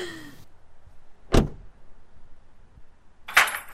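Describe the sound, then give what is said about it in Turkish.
A sharp thud lands, followed a couple of seconds later by a bright metallic jangle, like a set of keys being tossed down onto a hard surface. No one speaks. “Ya anahtarı neden fırlatıyorsun ya?”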